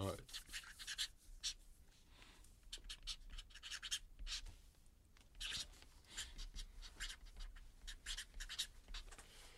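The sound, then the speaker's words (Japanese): A pen scratches steadily across a stiff shikishi board in short, uneven strokes, fairly quiet, with faint low rumble underneath; a 48-year-old mental trainer is writing his dream for five years ahead. “5年後の夢そちらの色紙に書いていただけるでしょうかはい、えー、現在48歳そうですねはいでは53歳の夢をそちらにお書きください”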